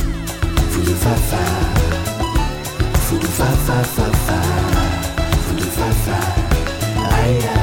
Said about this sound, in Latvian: Noklausīties vienu dziesmu, ko Mārtiņš vēlas, lai jūs dzirdat tieši šobrīd